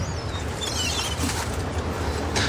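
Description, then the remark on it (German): Steady, dense seaside ambience by the ocean with a broad wash of surf-like noise, while faint bird calls and chirps rise briefly above it. No one speaks. “Ah, beruhigende Geräusche. Erinnerung an Sommerferien. Der Blick über den weiten Ozean.”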